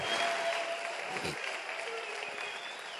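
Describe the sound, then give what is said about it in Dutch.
An audience claps steadily and loudly, with scattered voices shouting and cheering through the applause, which eases off slightly toward the end. “Kan ik een glorie horen, mensen?”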